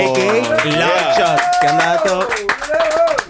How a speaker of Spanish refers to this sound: Claro un aplauso, sí.